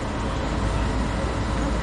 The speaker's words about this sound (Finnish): Jeten metro kiitää kiskoilla päätä huimaavaa vauhtia, eikä Jete pysty enää hallitsemaan sen menoa, vaan juna alkaa heittelehtiä raiteilla.